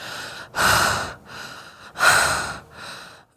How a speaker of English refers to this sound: And our breathing is deep.